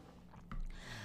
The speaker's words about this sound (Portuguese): Outra pausa para beber água.